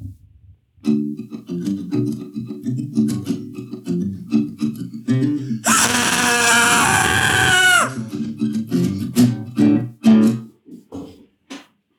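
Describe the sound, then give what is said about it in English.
A low, steady instrumental drone plays out the end while a person does accompanying 'screaming ASMR': a loud, strained wailing scream for about two seconds in the middle, followed by a few shorter vocal outbursts. “I'm just gonna do some accompanying screaming ASMR.”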